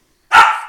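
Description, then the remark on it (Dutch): A single sharp bark from a dog, the team mascot, playing in the background, bursts out after a brief silence, loud, its tone trailing off over a fraction of a second. No one speaks. “Ja, dat is even de hond die aan het, op de achtergrond aan het spelen is.”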